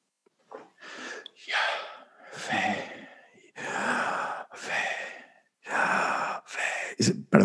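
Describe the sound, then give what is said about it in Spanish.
A voice tries to say the name of God, Yahweh, as breath: a series of deliberate inhales and exhales, about eight breathy pulses in a row, fairly loud, with no words spoken. “si lo intentas decir, eh, lo que estás haciendo es que estás inhalando y estás exhalando, ¿no?”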